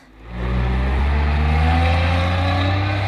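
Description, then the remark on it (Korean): A bus's engine rumbles up from idle and revs steadily as it pulls away and leaves, a loud, low drone with rising harmonic whine, with no voices. “하지만 무심한 버스는”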